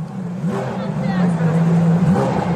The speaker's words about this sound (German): Und dann der Klang. Ein Motorstart, eher ein Konzertbeginn.